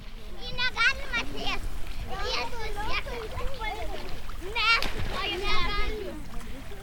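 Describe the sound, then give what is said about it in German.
Water splashes and sloshes as someone wades knee-deep through the shallow, warm Curonian Lagoon over soft sand under a low sun, with children's voices chattering and calling throughout. “Das Wasser geht uns bis zu den Knien, weicher Sand unter den Füßen.”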